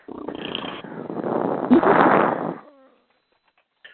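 Heavy breathing blasts into a microphone, a loud, rough, airy rush that swells for about two and a half seconds with a sharper gust partway through, then cuts off, leaving near silence.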